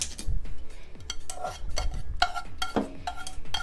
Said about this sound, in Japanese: 今ちょっと茹でていますはい軽く沸騰してきたのでもう火を止めて、えー、ザルの方にねけちゃいますね